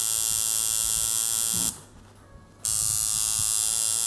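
A tattoo machine at a tattoo artist's buzzes steadily with a bright, whining electric drone, cuts out for about a second, then starts up again at the same loud, even pitch.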